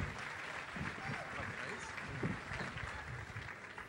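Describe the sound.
An audience in Brazil applauds the Lord and welcomes a pastor in a dense, steady wash of clapping that holds at an even loudness for about four seconds, with a few voices mixed into the crowd noise.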